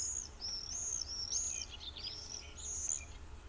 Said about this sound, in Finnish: Pesivät linnut voivat kuitenkin kirkua omassa kolossaan.